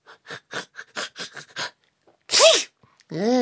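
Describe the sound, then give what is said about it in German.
A sudden, sharp sneeze bursts out loudly after a stretch of quick, choppy voice sounds, followed by a rising, nasal whining vocalization. “Gesundheit.”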